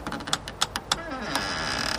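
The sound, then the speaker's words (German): A door creaks slowly open: a string of dry clicks and ticks, then a steady, drawn-out grinding creak that holds to the end. No voices. “Ich öffne langsam die Tür.”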